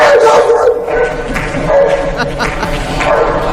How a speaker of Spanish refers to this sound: Justo después de ellos, con los micrófonos todavía abiertos para pasar a más temas, ha sonado este perro por los altavoces.